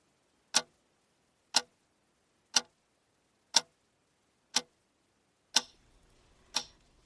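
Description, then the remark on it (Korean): A clock on a table, showing 11:42, ticks steadily: seven crisp, evenly spaced ticks about a second apart, clear against silence; the last couple carry a faint hiss behind them. “탁자 위의 시계가 벌써 11시 42분을 가리키네.”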